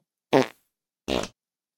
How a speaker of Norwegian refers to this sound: Men så kommer det en fjert til.